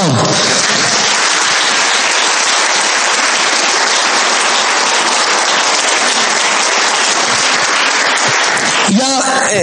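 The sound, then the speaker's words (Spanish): Loud, sustained applause from a large crowd giving an applause to the Lord, a dense wash of clapping lasting several seconds that fades as a voice begins speaking at the very end. “Si tiene a su hijo, no lo deja aplaudir, gloria a Dios, al lado, dile un aplauso al Señor.”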